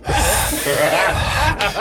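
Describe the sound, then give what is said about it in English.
A voice imitates heavy, raspy breathing on a window, a loud, continuous huffing rush of breath with a brief break near the end before another breathy burst. “see a nigga breathing on the window like.”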